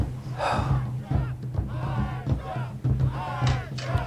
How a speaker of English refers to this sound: Hey. Uh, you hear that? Do you hear what I hear? Yeah, dude. They're cheering for us.